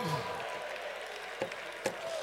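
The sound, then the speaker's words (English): An audience claps together as a hand clap of thanksgiving to the Lord, a steady, noisy wash, with a few sharper, louder claps standing out near the end and a faint voice briefly underneath. “Give the Lord a hand clap of thanksgiving today.”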